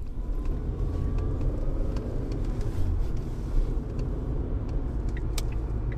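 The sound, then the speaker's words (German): A car drives steadily along a road at a reduced 70 to 80 km/h, a continuous low engine rumble and tire noise holding even throughout, with faint higher ticks and hiss above it and no voices. “Während der Fahrt zu meinem nächsten Gesprächspartner drossle ich das Tempo, fahre nur noch 70 bis 80 Stundenkilometer.”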